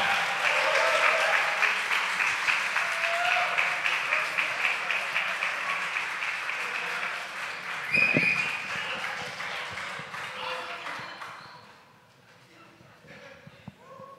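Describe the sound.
A church audience applauds loudly and steadily for several seconds to welcome the church's pastor, the clapping gradually thinning and fading out toward the end, with a few voices calling out amid it.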